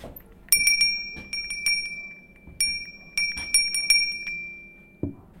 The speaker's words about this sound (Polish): To jest oryginalny dzwoneczek z Dzwonek Teksań.